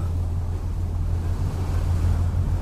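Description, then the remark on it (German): A steady low engine drone hums beneath continuous rushing sea and wind noise as a ferry departs the little harbour of the small town of Dulin, Ireland, loud and unbroken with no voices. “Die Fähre legt vom Häfchen des Städtchens Dulin ab.”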